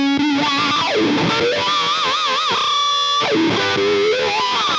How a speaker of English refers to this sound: now did i hear some wah wah pedal